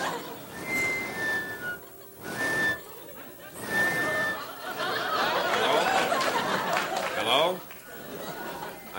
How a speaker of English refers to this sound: Oh, there's a hole in these things, isn't there? Yes. Did, did you, were you just whistling through there?